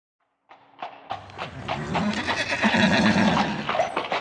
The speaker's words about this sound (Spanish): El caballo cabalga por el campo. Caballo.